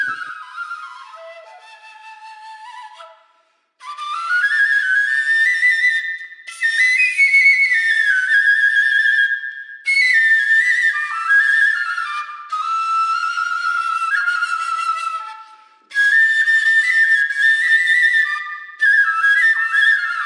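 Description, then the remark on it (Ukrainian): A Hutsul telynka, an overtone flute that is a bare hollow tube without finger holes, plays a bright, breathy melody in several leaping phrases with short pauses between them, fairly loud, with no voices. “Ось фрілка вона нічого не має, лише трубка наскрізь порожня а це віртуозні інструменти.”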